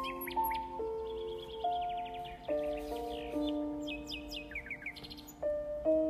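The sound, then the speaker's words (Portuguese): Several caged birds chirp and trill in quick bursts throughout, fairly clear, over a backdrop of sustained melodic tones, with no one talking. “Veja todos os passos engaelados, estão sempre cantando.”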